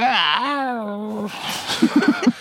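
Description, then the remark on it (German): A drowsy, drawn-out meow voiced by a person as a half-asleep morning meow before the first coffee, sliding in pitch over about a second, followed by a few short breathy laughs. “Dann hätte ich jetzt gerne ein, ein Miau von dir morgens vor dem ersten Kaffee, ja, okay. auch so ein bisschen bisschen halb verschlafen.”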